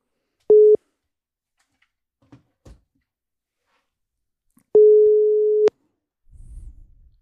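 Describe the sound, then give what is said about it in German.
A telephone ringing tone sounds while a call is placed: a clipped first beep, a pause, then one steady mid-pitched tone lasting about a second, followed by faint low rustling at the end. “Ich rufe ihn mal an.”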